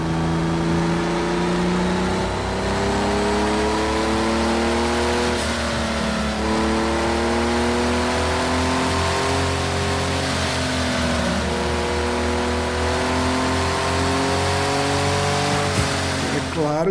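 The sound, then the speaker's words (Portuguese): An original 1976 Porsche 930 engine roars up through the gears, its pitch climbing steadily and then dropping at each of several shifts. It is loud, with no break for the whole run. “que é um Porsche 930, né, gente? O original aí, né? O original de 1976.”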